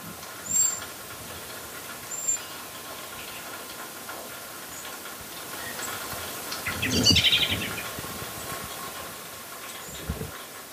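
A blackbird gives its thin, high-pitched alarm call for aerial predators, two brief drawn-out 'seee' notes a couple of seconds apart over faint outdoor noise, followed by a louder rustling burst.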